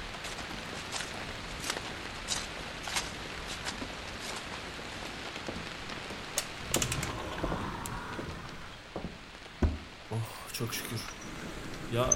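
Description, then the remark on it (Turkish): Steady rain hisses throughout, a dense even wash of falling drops, with a few sharper knocks and scrapes breaking through toward the end. “Yoksa yağmurda da konuşurdum yani yanlış olmasın.”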